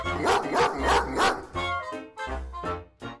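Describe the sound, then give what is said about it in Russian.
A dog barks angrily in a quick series of about half a dozen sharp, loud barks, some slightly growly, with short gaps between them and no one talking. “И хотя отвернулась, но сердито залаяла.”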